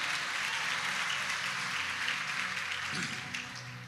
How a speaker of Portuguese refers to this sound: Pode dar um glória a Deus e aplaudir Jesus mesmo.